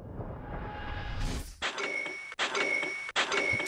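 A bright, metallic cash-register chime signals a Shopify sale notification, ringing three times in quick succession, loud, after a stretch of low, rumbling background noise.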